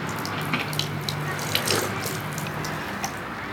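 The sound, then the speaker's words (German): Water runs steadily from the spout of a spring fountain, the Hornberger Lebensquelle, giving drinkable carbonated water, in a continuous splashing stream as water bottles are filled, with a faint low hum underneath and no talking. “Wir machen jetzt unsere Flaschen voll.”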